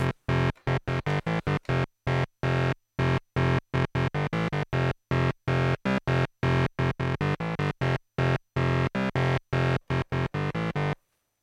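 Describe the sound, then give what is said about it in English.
A buzzy synthesizer bass, set with attack, decay and release at zero and sustain at 100, plays a quick run of notes, each starting instantly at full volume, holding steady, then cutting off abruptly, with short silences between uneven note lengths. “So, if you want to make some cool basses, the easiest way is to turn the attack at zero and the release at zero, also the decay, but the sustain at 100, and you will have a sound like this.”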